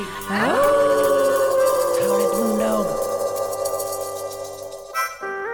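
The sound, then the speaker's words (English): Several people on the Moondog radio show howl together like dogs on a count of three, their voices rising in a loud, sustained chorus that holds for a few seconds before tapering off. “And now on the count of three, we all gonna howl at the yeah, boondog.”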